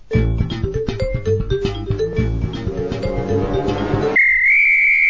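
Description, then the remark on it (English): A short, punchy musical sting plays loudly and busily with rhythmic hits for about four seconds, then cuts to a sustained high whistle-like tone that bends slightly upward at the end. “Otherwise, I've got to play another sting.”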